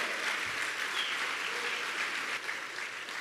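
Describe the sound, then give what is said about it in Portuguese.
An audience applauds the Lord steadily, a dense wash of many hands clapping at once with no pauses, holding an even, moderate loudness throughout with no voices breaking through. “Se você tem sido ouvinte e praticante, dá uma salva de palmas ao Senhor.”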